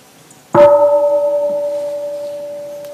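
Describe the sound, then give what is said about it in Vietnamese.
A single wake-up strike on a temple bell, signalling that a full bell ring will soon follow. The short tap blooms into a steady, humming tone and slowly fades over a few seconds, clear with no voices. “Đó là tiếng thức Và tiếng thức đó Nó có công dụng là báo cho người ta biết là không bao lâu sẽ có một tiếng chuông tròn đầy nó vọng lên”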